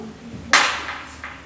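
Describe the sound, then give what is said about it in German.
A sharp slap of a gymnastics skipping rope hitting the floor, a sample with reverb added so it rings out long, followed by a fainter second hit. No voices. “vom, vom Gumpiseil, oder? Mit ein bisschen Hall drauf.”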